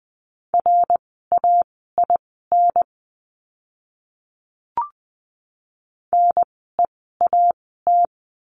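Morse code practice words for a lesson on the letter r, sent at 20 words per minute as a steady mid-pitched tone, crisp short and long beeps grouped into words at a brisk pace, with a pause and a single click partway through.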